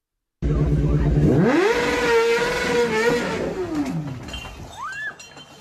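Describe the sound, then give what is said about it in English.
A chopper motorcycle engine starts with a low rumble, then revs up to a sustained high whine before dropping back down, ending with a brief squeaky sound. “Let's go to the garage here. Let's get on the chopper.”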